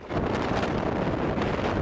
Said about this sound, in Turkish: Hızı saatte 80 kilometreyi geçen rüzgarlar nedeniyle çok sayıda binanın çatısı uçtu. Ağaçlar devrildi, büyük hasar oluştu.